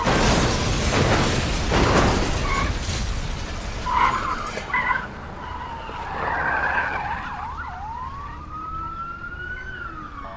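car skidding and crashing

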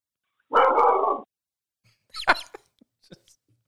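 dog barking

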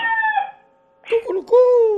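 rooster crowing

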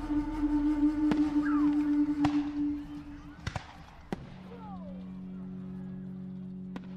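fireworks exploding

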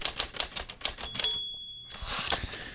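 typewriter typing sound effect

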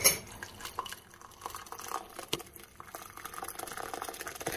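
water boiling

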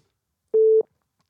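telephone call ringing tone

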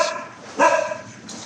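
dog barking

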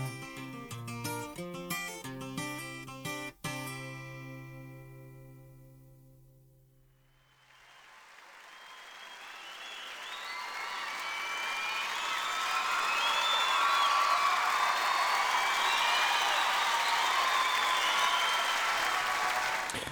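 audience applause and cheering

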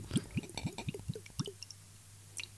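pouring a drink

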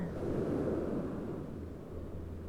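sea waves and wind

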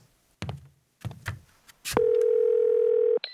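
telephone dial tone

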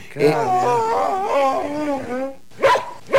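dog whimpering

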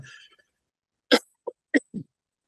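sneeze

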